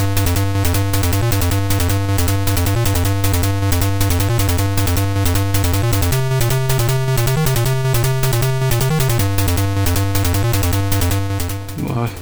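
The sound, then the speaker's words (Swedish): Loud, buzzy synthesized music from the original arcade version of the game Kung Fu Master plays throughout, a busy repeating melody over a pulsing bass line that shifts pitch midway, with no voices. “Eh, ja, den lät så här på 64 Och lät så här på original.”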